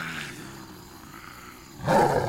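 A tiger's low, rumbling growl gives way to a sudden loud, throaty roar near the end, with no voices present.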